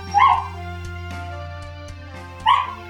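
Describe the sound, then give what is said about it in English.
Two short dog barks, one near the start and one near the end, separated by a quiet stretch with a steady low hum in the background. “I think I can hear a dog right now.”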